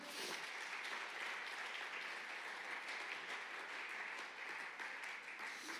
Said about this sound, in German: Gibt uns, äh, nicht uns, aber den anderen hier einen fetten Applaus. Vielen Dank.